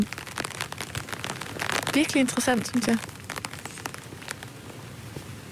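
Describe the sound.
Steady patter of rain drumming close overhead on a small taut surface, dense and crackly throughout, while a person speaks briefly in the middle.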